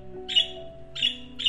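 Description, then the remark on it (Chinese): Birds calling in short, harsh, high-pitched bursts, three in quick succession about half a second apart, over a low steady hum of sustained tones; the birds fly in from afar to land in the trees of a small island. “鸟儿从远方飞来，落在小岛的树上。”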